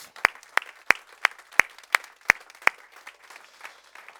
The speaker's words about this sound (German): Lass uns sie herzlich willkommen heißen heute Morgen mit einem kräftigen Applaus